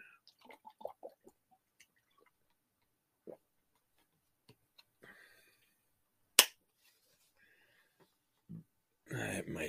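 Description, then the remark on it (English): A plastic water bottle is handled and opened: scattered small clicks, one sharp crack as the cap breaks, then a burst of crinkling plastic and drinking noises at the end, fairly quiet. “I got to take a drink of water, see if I can get these to go away, if I can get the bottle open.”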